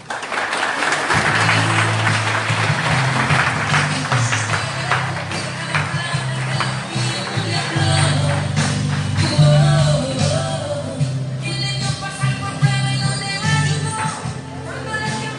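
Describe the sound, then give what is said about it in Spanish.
Loud, sustained applause from a crowd, dense clapping that keeps up steadily for about fifteen seconds, with a low droning tone running underneath and faint voices mixed in. “Fuertes aplausos.”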